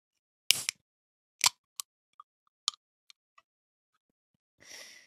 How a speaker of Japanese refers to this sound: 今日のお供は、レッドブル翼を授けるいただきます。ちょっと開けるね。よいしょ。